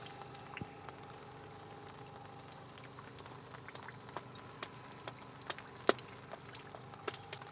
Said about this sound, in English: splash in the puddle.